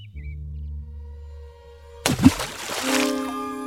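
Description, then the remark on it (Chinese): A single heavy plop as something drops into water, a sudden splashy burst that fades out over a second or so, set against a soft, steady musical drone. “咕咚一声，好可怕呀！”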